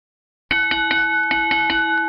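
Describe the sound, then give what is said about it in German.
A bright video-channel notification bell rings in rapid repeated dings, about eight quick strikes over a sustained metallic ring, loud with no voices. “Gerne ein Abo dalassen, gerne die Glocke aktivieren”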